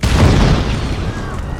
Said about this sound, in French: Ce matin d'hiver, à 7h45 environ, un dépôt d'obus abrité au sein de l'usine Colombert prit feu. S'ensuivit alors une forte déflagration.